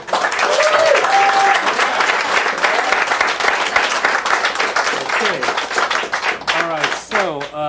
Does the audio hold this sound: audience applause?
yes